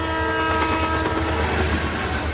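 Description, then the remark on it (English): A train horn blares in a loud, steady tone over the heavy rumble of a passing train, continuous throughout, with no voices. “If you think trains will stop if they see a car on the tracks, you're right, they will.”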